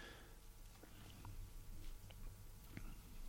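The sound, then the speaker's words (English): Someone takes a small sip of a 100% Garnacha red wine from Campo and tastes it, with soft slurping and wet mouth sounds, no one speaking. “Okay, little sip here till we see.”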